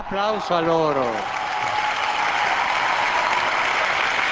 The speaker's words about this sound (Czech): Svoji promluvu pronášenou uvnitř baziliky směrem k otevřeným dveřím zakončil papež zmínkou o většině mladých lidí, která stála před bazilikou na poledním slunci. Odolávali tam slunci ve stoje. Zatleskejme jim.